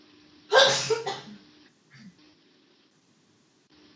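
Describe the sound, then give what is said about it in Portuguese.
A single sudden, loud sneeze bursts out and fades within about a second, followed by a faint short sound and then near silence with a low steady hum. “Saúde.”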